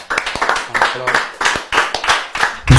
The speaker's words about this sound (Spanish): Un fuerte aplauso para esta pendeja.